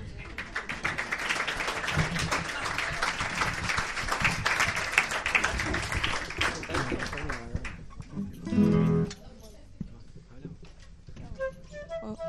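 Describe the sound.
An audience at a live music performance applauds a performer at the host's request with dense, steady clapping for several seconds, then it thins out; a short vocal burst and scattered voices follow as the applause fades.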